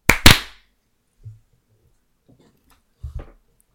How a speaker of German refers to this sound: Klatschen in 3, 2, 1. Nochmal klatschen in 3, 2, 1.